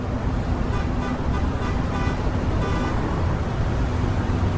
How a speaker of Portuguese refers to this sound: Tá todo mundo buzinando.